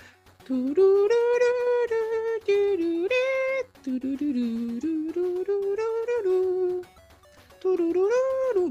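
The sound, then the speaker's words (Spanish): A single voice hums a bouncy, stepwise tune, imitating the 8-bit soundtrack of a 1989 Capcom game for the NES. It hums in several sustained phrases, with a brief pause near the end before the melody resumes. “Bueno, ya, no la hago muy bien los 8 bits, pero es una, una musiquita muy entretenida.”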